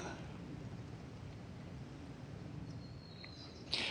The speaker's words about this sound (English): And then you've got the robins. And once you start listening, you realize there's not just three voices, three men voices. There are three, I don't know, 300, 3,000 different voices. The birds singing.